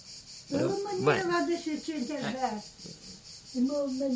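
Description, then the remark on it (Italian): A steady, shrill drone of cicadas chirping hums continuously in the background while people talk over it in the foreground. “Proviamo a vedere se si sentono le cicale.”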